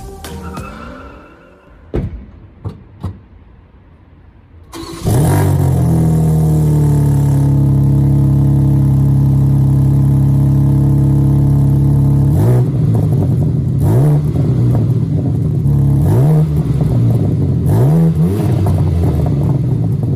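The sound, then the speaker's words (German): A few faint clicks, then a sports car engine fires up loudly on a cold start and settles into a high, steady idle with strong low rumble, followed by several sharp revs that rise and fall, crackling as the throttle drops. “Es brodelt beim Gas wegnehmen. Das ist schon, aber es war ein Kaltstart, ne?”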